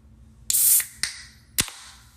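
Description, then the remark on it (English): A ginger beer being opened: a loud burst of bright, fizzing hiss, then two sharp snapping clicks spaced about half a second apart, with no talking. “But real quick, I got a ginger bee here, and I just thought that y'all would um, enjoy this sound.”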